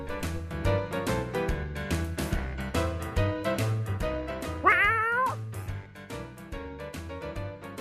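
A single sharp cat yowl cuts in briefly, loud and wavering, over steady rhythmic background music that plays throughout.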